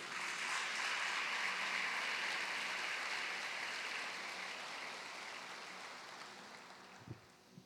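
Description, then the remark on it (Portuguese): An audience at a church service applauds Jesus in a steady, dense wash of clapping that holds strong, then gradually thins and fades toward the end, with a couple of brief louder thumps near the close. “É a minha oração em nome de Jesus e a igreja diz: aplauda Jesus mais uma vez aí.”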